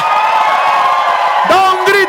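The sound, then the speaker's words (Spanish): A crowd of voices shouting and cheering together, a loud sustained roar with individual whoops and yells rising near the end, giving a shout of victory and applause to the Lord. “Dele fuerte ese aplauso al Señor. Y da un grito de victoria”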